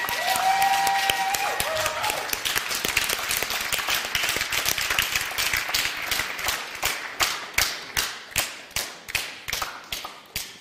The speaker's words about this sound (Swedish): Kan vi ge en stor applåd till lovsångsteamet? Tack så mycket.